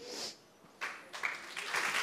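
A crowd applauds the Lord, the clapping briefly dipping before swelling again into steady, dense applause from many hands. No one is speaking.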